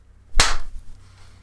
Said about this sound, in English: Here comes a nice slap.